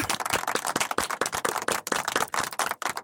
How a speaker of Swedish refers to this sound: Jag har sovit 21 timmar. Alltså 21. bara det är värt en applåd alltså.